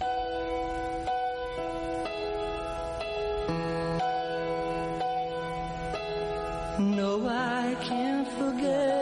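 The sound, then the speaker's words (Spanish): A slow, emotional ballad from a 1971 recording: sustained chords shift roughly once a second, then a wavering, vibrato-laden singing voice rises over them near the end. No talking. “Hay una versión anterior en el año 71 que suena así de emotiva y de bonita también.”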